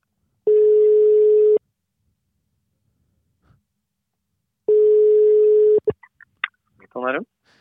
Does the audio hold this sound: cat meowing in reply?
no